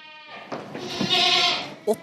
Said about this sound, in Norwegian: 80 sommerklare geiter står bare og tripper inne i fjøsen, klare til å springe på sommerbeite.